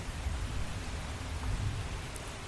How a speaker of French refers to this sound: Ici, c'est beaucoup plus calme. Comme vous l'entendez, il y a juste la pluie. Euh, il y a aussi des oiseaux, des insectes d'habitude, mais pas aujourd'hui.